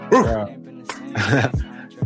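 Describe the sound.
A person imitates a dog growling with three short, gruff vocal bursts, rising and falling in pitch, fairly loud with brief pauses between them.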